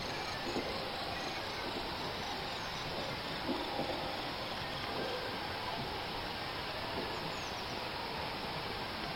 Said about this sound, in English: When the imaginary audience has the information, that this imaginary concert, the sounds were of endangered insects.